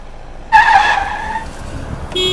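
Car tires let out a sharp, high screech that starts abruptly, holds for about a second, then trails off, followed by another brief tonal squeal at the end.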